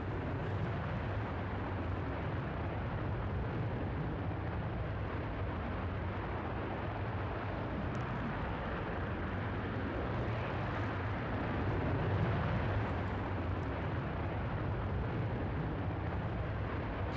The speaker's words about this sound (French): Fire. Donc, le moteur principal qui cette fois-ci fonctionne.